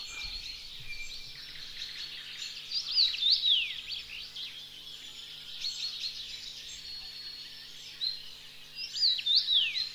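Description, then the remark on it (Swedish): A songbird repeats a short, slurred whistled phrase like 'pleased to meet you' about three times, fairly clear, with faint background chirps and a low steady hum underneath. “Vi ska lyssna på hur den låter. Väldigt välformulerat. Nice to meet you, säger engelsmännen. Vi säger köp en video.”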